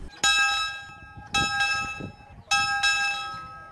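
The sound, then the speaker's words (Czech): A railway station bell at the single platform in Hua Hin, in use since 1911, rings three times at a steady pace, each clang bright and metallic with a long shimmering ring that lingers until the next strike, with faint background noise. “Tenhle nádražní zvon vítá všechny cestující na jediném nástupišti v Hua Hin už od roku 1911.”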